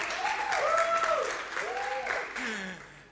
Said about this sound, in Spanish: Un aplauso para Felipe Sandaña, el autor de las tallas.